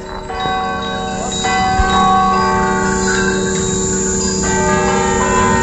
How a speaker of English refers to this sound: Everyone, are we ready to go with the bells?